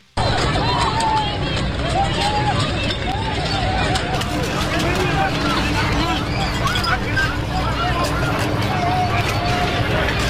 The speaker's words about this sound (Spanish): Y escuche ustedes las escenas de pánico que se vivieron en la ciudad de Kansas, allá en los Estados Unidos.